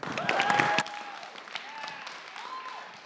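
A short burst of dense audience clapping that cuts off abruptly after under a second, leaving a quieter background with faint, thin whistle-like tones.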